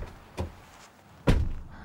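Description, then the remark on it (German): A car door shuts with a solid thunk, preceded by a softer knock on the window, as someone gets into the passenger seat. The heavy slam stands alone with no talking. “klopft ans Fenster und setzt sich auf den Beifahrersitz.”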